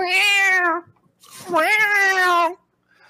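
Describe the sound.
A voice imitates a cat with two loud, drawn-out meows, each sliding in pitch, separated by a brief pause.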